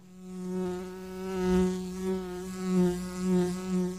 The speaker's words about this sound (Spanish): Este es el zumbido de la abeja de Andes Origen Miel. Una cerveza con gustito a miel del monte. ¿Cómo no va a zumbar en estéreo?